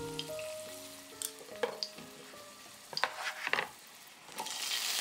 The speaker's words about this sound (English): Now, place the crushed garlic into a pan and pour in the extra virgin olive oil. Heat the pan on medium heat. When it begins to sizzle, reduce the heat to low and saute the garlic until aromatic.